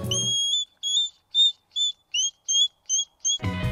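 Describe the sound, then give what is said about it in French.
A hedgehog at a care centre for orphaned, sick or injured hedgehogs gives a steady series of about eight high, thin squeaking calls, each short and whistle-like, spaced evenly with brief silences between them. “Écoutez ce hérisson lui dire merci.”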